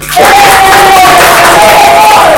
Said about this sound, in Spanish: Un aplauso